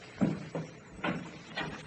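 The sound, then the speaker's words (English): A door being opened: a series of four moderately loud clunks and rattles, spaced unevenly, like a latch and handle being worked, with no one talking. “Open that door.”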